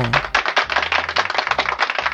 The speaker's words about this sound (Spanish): Aplauso para